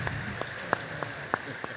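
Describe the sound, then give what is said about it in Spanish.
Thin, scattered applause for the Bishop: a handful of sharp, irregular handclaps spread over a couple of seconds, fairly quiet against a steady background hiss, with no voices. “Él un aplauso fuerte al Bishop.”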